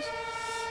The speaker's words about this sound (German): komm das ist ein Krankenwagen, hallo. Das ist ein Krankenwagen.